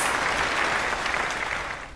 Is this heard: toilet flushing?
no